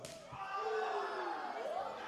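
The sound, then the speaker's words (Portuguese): A single sharp open-hand slap in a slap contest cracks right at the start, quickly swallowed by loud, sustained shouting and cheering from a crowd. “Cai para trás com aquele Sentiu tapa.”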